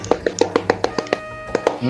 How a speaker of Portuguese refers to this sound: Uma salva de palmas aí. Uma salva de palmas aí. Uma salva de palmas aí.